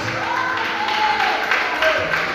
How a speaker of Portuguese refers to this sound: Pode bater aplauso, pode aplaudir a Jesus.